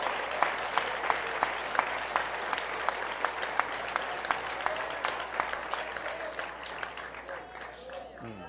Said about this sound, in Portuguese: um aplauso de Jesus bem forte. Meu Deus, que glória!